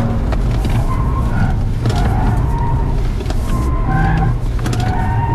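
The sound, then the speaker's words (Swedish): A car launches hard at full throttle using launch control with a loud, continuous engine roar, while intermittent high tyre squeals streak over it as the vehicle slides and skids. “Ja, ja, det svänger och det sladdar och det skriker om däcken.”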